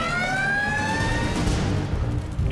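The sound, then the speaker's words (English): A fire engine's wailing siren sounds over a heavy engine rumble, loud, with the pitch gliding steadily as Ladder 10 and Engine 10 arrive at a brush fire at 1116. No voices. “Ladder 10 and engine 10 arriving.”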